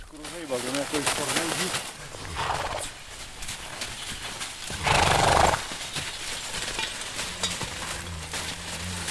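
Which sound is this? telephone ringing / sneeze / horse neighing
horse neighing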